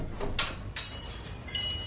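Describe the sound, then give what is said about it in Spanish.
A door opens with a couple of quick sliding swishes, followed by a thin, high ringing tone that lingers to the end, used on Radio 5 to open a children's story. Moderately loud, with no voices. “Abrimos la puerta de la pequeteca a una historia bilingüe.”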